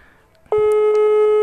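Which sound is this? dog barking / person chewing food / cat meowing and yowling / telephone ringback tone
telephone ringback tone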